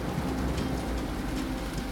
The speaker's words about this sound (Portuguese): Quando você sai, o vento e a chuva voltam a bater em você.